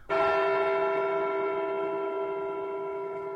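One bell struck a single time, ringing out loud, its rich tone sustaining and fading only slightly over a few seconds with no voices.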